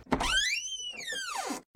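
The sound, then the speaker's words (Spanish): A door being opened for arriving guests swings open with a long, drawn-out creak that rises and falls in pitch over about a second and a half, clear with no voices. “Muriel, Jorge y Javier llegaron al mismo tiempo y Alex les abre la puerta.”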